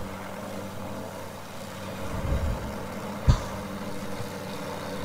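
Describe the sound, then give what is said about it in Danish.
A helicopter fitted with circular saws, used to fell trees, drones steadily, a low rumbling hum that swells slightly, with one sharp crack-like burst partway through; no voices. “Det er en helikopter med rundsav på.”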